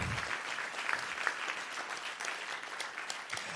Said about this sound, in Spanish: Denle un aplauso fuerte a Jesús si usted lo cree.